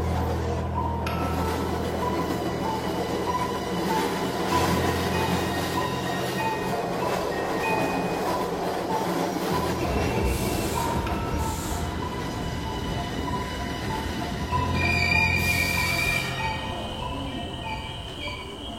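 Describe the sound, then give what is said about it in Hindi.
A train rolls steadily along the rails, a dense continuous rumble with rattling carriage noise and faint metallic squeals rising now and then; no one speaks. “एक लाश के साथ खाली ट्रेन में सफर कर रहा था”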